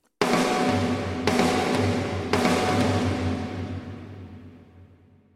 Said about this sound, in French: on isole le fil d'intro et on le balance dans un bus de la console en mettant une immense réverbe genre cathédrale avec un long decay, c'est-à-dire avec euh, une traîne très longue, euh, une réverbe qui dure très très longtemps.